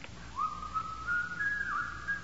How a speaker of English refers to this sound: Somebody's whistling. It's Yankee Doodle.